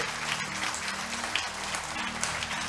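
Steady audience applause, many hands clapping in a dense, continuous patter at a fairly even loudness throughout, with no voices standing out.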